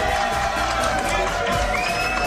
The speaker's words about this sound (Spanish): Gracias. sé que están baratos los aplausos, pero muchísimas gracias.